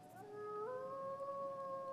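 A single wolf howls in one long, steady tone that rises slightly partway through and holds, clear against a faint background hiss, with no one speaking.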